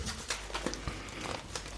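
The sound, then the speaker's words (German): Soft paper rustling: a few brief crinkly shuffles and rubs scattered irregularly over a quiet background, with no one speaking. “Aber man kann es vielleicht ein bisschen hören, weil es kann sein, dass es ein bisschen raschelt.”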